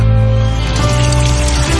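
Drinking water pours steadily from a home tap in the Dominican Republic, a loud rushing stream that runs unbroken for the whole moment, with a soft tonal background underneath.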